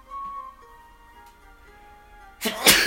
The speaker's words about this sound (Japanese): はいすいませんくしゃみ出ちゃいました